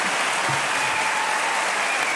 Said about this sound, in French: Et par applaudissement, qui est pour euh, ah oui.